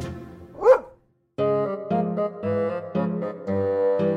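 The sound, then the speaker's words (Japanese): A single sharp bark from the dog in the Momotaro folk tale rings out, followed by a short silence and then a bright, steady musical passage with sustained tones. “こうして犬は桃太郎の家来になりました”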